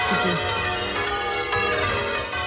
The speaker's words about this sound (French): Ça, c'est des cloches qu'il a réparées dans les Baléares.